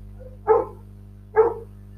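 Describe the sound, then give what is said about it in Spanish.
A dog barks twice, two short sharp barks spaced under a second apart, moderately loud over a steady low background hum. “no voy a poder seguir grabando, los perros van a seguir ladrando porque son perros, ¿no?”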